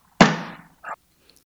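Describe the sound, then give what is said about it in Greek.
A door is slammed shut in someone's face with a sharp, loud bang that rings and decays, followed by a brief softer knock or rattle a moment later; no voices. “Αυτά είπε και μου έκλεισε την πόρτα κατάμοντρα.”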